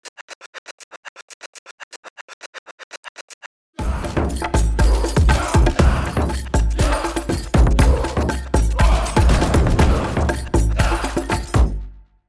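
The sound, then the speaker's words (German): A quick, even run of light ticks gives way to loud, booming Viking percussion samples, heavy drum strikes with metallic crashes played back in random order rather than a fixed round-robin sequence, landing in an irregular, shuffled order, with no one speaking. “Und jetzt wird die ganze Zeit einfach das Sample durchfahren. Also wir hören immer dieselbe Round-Robin-Abfolge.”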